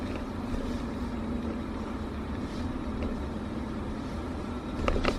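A steady, low rumble of road and engine noise from inside a moving car on a road by a cemetery wall, with another car coming up from behind and the sound swelling slightly at the very end.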